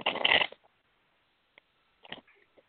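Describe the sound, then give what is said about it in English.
A deck of tarot cards is riffled in a short, dense papery burst, followed by a few soft, scattered taps and slides as the cards settle. No one speaks. “tell me to stop shuffling whenever you're ready.”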